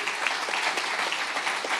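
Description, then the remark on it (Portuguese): An audience at a church service breaks into steady applause, a dense patter of many hands clapping at an even, fairly loud level with no voices standing out. “Querido, se você não aplaudir por causa disso, eu falo, vamos terminar o culto aqui.”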